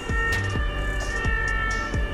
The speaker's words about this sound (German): Mit Blaulicht und Sirene zum Einsatzort fahren, verletzte und kranke Menschen mit eingeübten Handgriffen helfen.